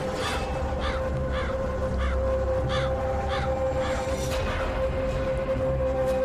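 crow cawing

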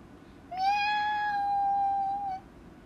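cat meowing

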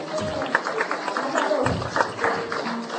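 audience clapping hands

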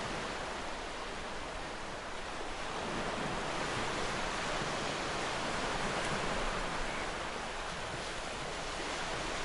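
ocean waves

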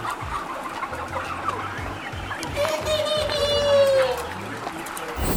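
chickens clucking

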